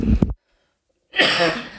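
A harsh cough from a male with a bad cough, in two bursts: a short, sharp one, then a pause of silence, followed by a longer, rough, breathy hack with no talking.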